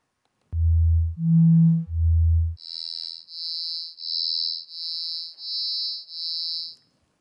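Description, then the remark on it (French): Synthetic test tones, played with and without phase modification, sound alone: three long low hums, the middle one higher and buzzier, followed by six evenly spaced high-pitched beeps, all steady and clear. “tout le son est comprimé, et par conséquent, ça devient assez difficile de percevoir la différence introduite par la modification de phase sur ici, donc notée par Alt.”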